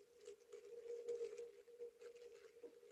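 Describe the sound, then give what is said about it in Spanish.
A dense, continuous pattering like rain falling on a hard surface, with many tiny irregular taps over a steady low hum, moderately loud, with no voices. “no ve como este ruido de chover”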